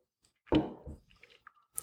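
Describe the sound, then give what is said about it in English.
A wet sip of limoncello from a glass: one short slurping draw, followed by soft mouth clicks and a swallow, with no talking. “So cheers to you. I'll have another sip.”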